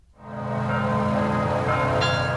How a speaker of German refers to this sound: Mit Glockengeläut und einer Schweigeminute haben heute die Gedenkfeiern zum Jahrestag des Unglücks bei der Love Parade begonnen.